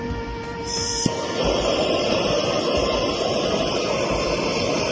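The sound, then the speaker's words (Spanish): A kitchen blowtorch caramelizing sugar on pineapple and goat cheese clicks on about a second in, then roars with a steady, loud, hissing rush of flame that continues unbroken to the end, with no talking. “Yo esto siempre lo suelo hacer delante del cliente, porque hace un poco el show con el soplete.”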